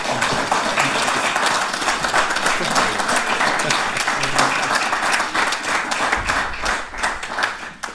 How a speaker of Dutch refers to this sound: Geef me een applaus.